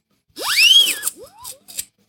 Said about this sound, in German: Scheiß Sirene. Beim nächsten Mal nehme ich wieder eine Tröte.